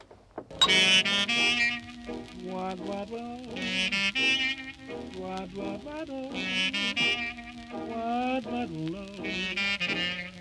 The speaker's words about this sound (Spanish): De este modo descubre las grabaciones de …, en concreto el scat de …, que suena algo así.